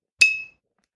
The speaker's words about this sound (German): Ich werde nun mit meinem Zauberstab an eine Flasche klopfen. Normalerweise bräuchte ich das nicht, aber damit sie hören, was ich tue. Es klingt so.